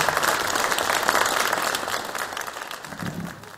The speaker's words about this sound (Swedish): Hej och varmt välkomna till årets berättarkraft 2022. En applåd tycker jag vi börjar med.